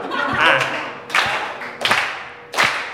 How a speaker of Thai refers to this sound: เพราะว่าวันนี้เป็นวันเกิด ผมก็อยากแบบฝากไว้เป็นสุดท้ายฮะอยากให้ทุกคนปรบมือเป็นจังหวะให้ด้วยเป็นจังหวะเป็นจังหวะฮะทุกคนรู้จักจังหวะไหมฮะเหมือนตอนเริ่มอะครับ